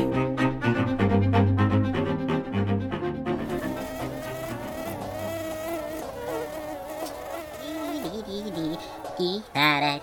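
A mosquito's thin, whining buzz rises and falls in pitch as it hovers, continuing steadily for several seconds after a brief burst of rhythmic music.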